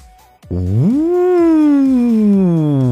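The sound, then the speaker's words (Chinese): A voice imitates a strong gust of wind with one long, loud 'whoo', sliding up in pitch and then easing slowly downward as it sustains for over two seconds. “一阵大风刮过，玩具熊直直的从阳台上栽了下去呀！”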